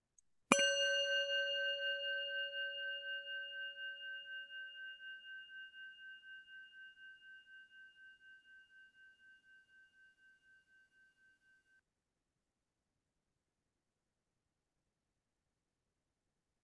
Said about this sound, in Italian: Lascio il mio cuore andare al suono di questa campana. Possa questo suono risvegliare chiunque lo ascolti dalla dimenticanza e trascendere ogni ansia e dolore.